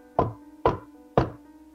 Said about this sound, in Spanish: Busca el tercer retrete de algún baño público Llama tres veces a la puerta.